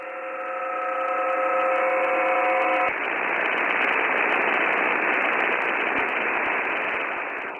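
Dense radio static from a radio telescope receiver pointed at a radio pulsar, with faint rapid periodic ticks buried in the hiss; a few steady tones hum over it for the first few seconds, then plain crackling noise continues alone.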